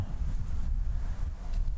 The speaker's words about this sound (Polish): Szum drzew liści, liści akacji, to jest najwięcej akacji obok mnie.